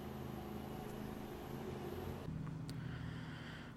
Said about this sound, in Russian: Вроде машинки, обрабатывающий газон, отъехали. Надеюсь, не вернуться, но если вернуться, придется, возможно, еще раз прерваться.